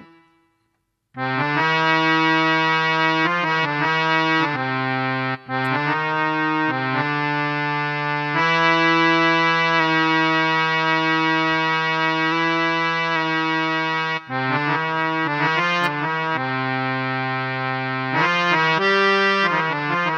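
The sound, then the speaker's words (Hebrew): A sustained instrumental chord built on C major, with its third note turned minor and then into a quarter tone, giving a microtonal inflection, held loud and steady, shifting between several chord voicings over about twenty seconds with no talking. “ואפשר להפוך אותו לרבע טון.”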